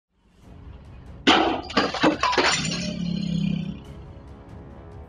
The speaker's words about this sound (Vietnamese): Cụ bé cho biết có những lần hết sức nghiêm trọng là họ đã ném vỡ cửa kính, kính vỡ vàng tung tóe vào người thân, rất nguy hiểm cho người già và trẻ nhỏ.